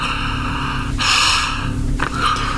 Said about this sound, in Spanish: ¿Sí se escuchó? Sí, claro. Eso que se acaba de oír se llama torsión cervical. La tronadita del cuello que muchos han visto en los videos de John Milton.